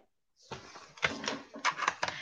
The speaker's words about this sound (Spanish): según yo estoy escribiendo y no tengo conectado el teclado.